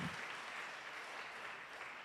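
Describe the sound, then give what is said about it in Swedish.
A church audience applauds for Jesus during a sermon in a steady, dense wash of clapping that holds evenly for the full couple of seconds, sounding like a large crowd. “Kan vi inte bara ge Jesus en stor applåd han är värd.”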